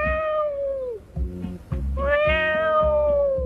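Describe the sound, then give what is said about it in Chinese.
A cat walking into a kitchen meows twice: a high, tonal meow that slides downward and fades, then a longer, steady, drawn-out meow, both loud over a low, rhythmic thumping background. No one speaks. “城里老鼠带着乡下老鼠从洞里爬出来，正要拿东西的时候，一只猫走进厨房。”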